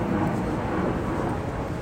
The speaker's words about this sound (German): Ja, es fliegt ja noch ein Flugzeug her, natürlich. Natürlich.